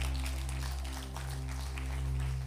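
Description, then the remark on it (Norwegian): An audience applauds, a dense, steady patter of many hands clapping that holds evenly for a couple of seconds over a constant low hum. No one speaks. “Når du får applaus, da er jobben gjort.”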